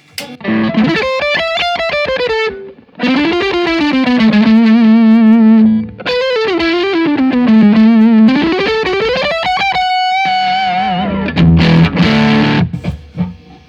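A distorted electric guitar, played on the neck pickup, plays a fast, fluid shred-style lead lick with bends and vibrato on sustained notes, warm and loud, ending in a few choppier notes; no talking.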